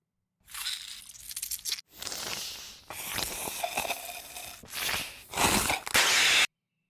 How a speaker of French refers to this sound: Au début, il y a un pamplemousse qui est pressé